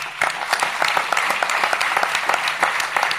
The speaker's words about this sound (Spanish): Y que los aplausos continúen, porque invitamos a ese cantor desconocido, ese pibe que tenía futuro, que estaba cantando acá en el escenario cuando ustedes llegaron,